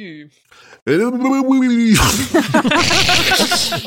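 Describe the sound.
A loud voice makes a low droning growl, then breaks into a wet, bubbling gurgle, like a monster speaking through a mouthful of water and seaweed.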